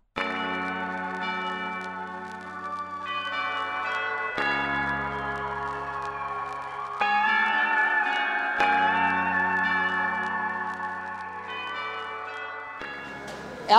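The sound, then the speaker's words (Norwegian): Church bells ring out continuously in a dense, overlapping peal of rich, sustained tones, loud and unbroken, with faint street background underneath, heard outdoors on the street, and no talking. “og som den eh, årvåkne lytter kanskje hører her nå, så er vi ikke lenger i studio. Vi har nemlig tatt eh, turen ut på gata i dag.”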